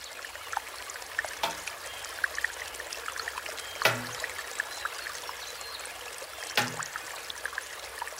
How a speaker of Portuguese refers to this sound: O nome dele é Shishi Odoshi. Um tubo de bambu despeja a água na lagoa e bate ritmadamente contra um chão de pedra.